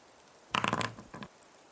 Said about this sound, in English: Nat twenty, baby. Let's fucking go. Okay. Fuck! I dropped the dice. oh, yep, there it goes. All right, well, we will never oh, get that one back.